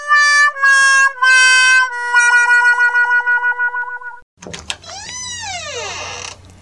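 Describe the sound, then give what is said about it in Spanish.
An electronic doorbell rings loudly in three quick bursts, then holds a steady buzzing tone that flutters before stopping, followed by a short swooping, creaky boing-like sound. “Pues no, no, voy a decirte que están tocando el timbre y voy a abrir la puerta.”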